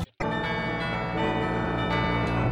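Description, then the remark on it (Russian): Church bells ring loudly and continuously, their overlapping tones sustained and shimmering, with fresh strikes layering over the lingering resonance in a steady rhythm. No voices are heard. “Почему вы навязываете звон колоколов?”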